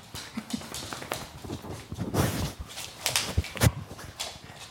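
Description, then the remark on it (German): Scuffling and pattering of two dogs, one named Mira, playing and running around, with quick taps and thumps of paws on the ground and bursts of rustling, irregular. The dogs are used in dog-assisted coaching for executives. “Die Hunde fungieren dabei als Stellvertreter für die Mitarbeiter.”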